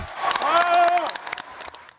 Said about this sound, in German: Es war am Vormittag bei uns und tief in der Nacht im kanadischen Montreal, als die rund 5000 Delegierten des Weltnaturgipfels jubelten.